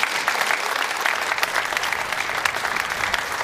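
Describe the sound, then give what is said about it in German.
Steady, dense applause from a studio audience in Munich, many hands clapping at once in a continuous bright patter that holds an even level throughout, with no voices over it. “Und wir grüßen mit einem freundlichen Applaus aus München.”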